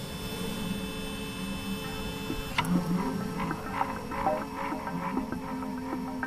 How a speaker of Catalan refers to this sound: Imagineu-vos una impressora a la cuina. No, no està fora de lloc, almenys aquesta que està pensada pel menjar.